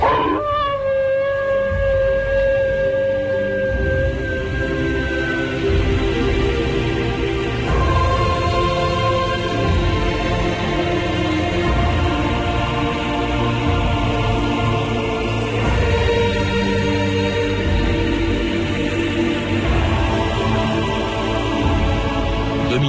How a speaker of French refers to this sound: J'ai vu le monstre, c'était comme une bête hurlante dans la nuit, avec un œil aussi gros qu'une lanterne de phare, et son haleine. Il soufflait comme une locomotive.